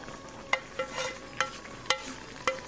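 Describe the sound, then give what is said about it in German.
Vegetables being stirred into a simmering curry: a soft continuous sizzle broken by several sharp utensil scrapes and clinks against the pot, with no talking. “Ja, jetzt das Gemüse rein.”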